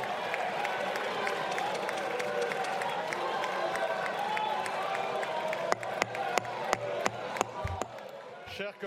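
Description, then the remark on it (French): A loud, dense crowd din of booing and shouting fills the chamber, followed by sharp scattered claps and banging, while a speaker tries to call for order over the noise. “Voilà, alors Adrien Quatennens a été beaucoup hué, applaudi, ceci dit, vous le voyez sur, euh, sur les images, par euh, certains députés de la NUPES”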